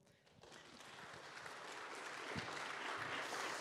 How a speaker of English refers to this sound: Thank y'all so much for the laughs. That concludes our Q&A. Y'all can clap for them.